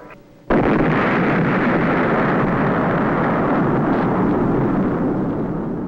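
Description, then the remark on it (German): An atomic bomb explosion: after a brief quiet moment, a sudden massive blast erupts into a loud, sustained rumbling roar that barely fades over several seconds. No one speaks. “So, liebe Hörerinnen und Hörer, hört es sich an, wenn eine Atombombe explodiert.”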